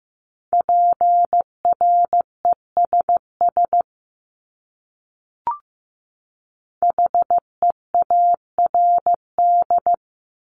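Morse code beeps at 15 words per minute, sending common English words: a single steady mid-pitched tone keyed in short dots and longer dashes, sent in two clear runs separated by a pause with a faint click.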